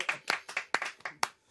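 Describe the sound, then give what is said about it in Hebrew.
A quick run of about seven sharp hand claps, crisp and fairly even in rhythm, as band members clap together with no talking over them. “חברי הלהקה מתבקשים למחוא כפיים.”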